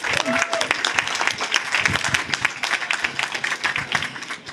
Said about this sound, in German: Und genau, einmal einen ordentlichen Applaus bitte